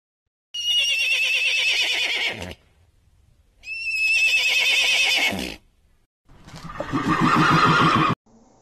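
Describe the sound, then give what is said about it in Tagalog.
A horse neighs loudly three times, each whinny a long, shrill, wavering call lasting a couple of seconds, separated by short pauses, clear with no one talking. “Ang mga tunog na inyong narinig ay mula sa palaka, ibon at kabayo.”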